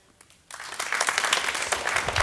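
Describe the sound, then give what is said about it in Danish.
Scattered clapping from a group of upper-secondary school students, applauding a candidate in a word-of-the-year vote, starts abruptly after a short quiet moment and continues unevenly, a modest, somewhat thin round of applause. “Sporadisk applaus, vil jeg kalde det.”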